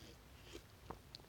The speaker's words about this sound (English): So I was like, okay, I'm gonna go back with my coffee. I'm gonna have a sip of right now.